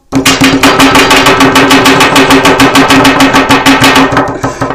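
Rapid, steady knocking on a table, a loud drumming of many quick raps that continues for several seconds without talk, then slightly tapers at the end.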